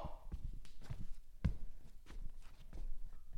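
Heavy footsteps of a person walking across a floor in a steady walking rhythm, recorded with the microphone placed on the floor, each step a deep, booming impact, with one especially loud stomp midway.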